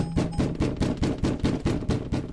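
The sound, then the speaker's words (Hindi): Loud, rapid pounding on a door, about nine heavy thuds in a steady, quick rhythm, forceful with no voices. “दरवाजे पर एक बार फिर जोर से नॉक हुआ”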